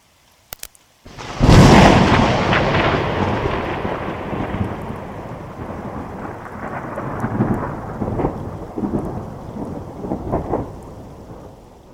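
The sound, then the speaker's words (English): A thunderstorm: after a couple of faint clicks, a loud crack of thunder breaks and rolls on in long rumbling waves, with steady rain hissing underneath throughout. “This week we're going to explore one of the marvels of Mother Nature the thunderstorm.”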